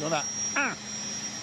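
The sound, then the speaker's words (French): A steady, loud industrial hum of refrigeration compressors producing cold in a plant 30 metres underground, with a constant high whine and low drone, while a man speaks briefly over it. “Et le bruit que vous entendez, c'est le bruit des compresseurs qui vont fabriquer le froid.”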